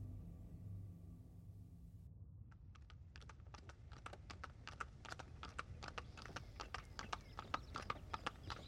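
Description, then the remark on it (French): Steady clip-clop of horse hooves pulling a luxurious carriage driven by a coachman, carrying Peter Munk away from the forest, beginning after a couple of seconds of low rumbling and continuing in an even, brisk rhythm, with no talking. “Un bruit régulier que Peter n'arriva pas à reconnaître tout de suite le réveilla.”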